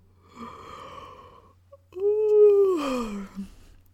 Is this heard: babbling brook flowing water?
no